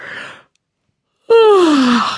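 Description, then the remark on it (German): A single human yawn: a breathy intake, a brief pause, then a long voiced exhale that slides downward in pitch and trails off. “Gähnen waren wir stehen geblieben.”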